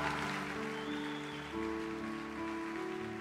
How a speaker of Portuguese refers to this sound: Você pode dar um aplauso para Jesus nesse lugar?